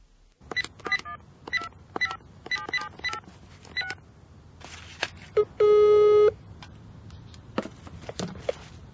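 A telephone number is dialed to call a colleague in the Czech Republic: a quick series of short, bright key tones, followed by a single steady, buzzing ringing tone that lasts under a second, then more faint clicks.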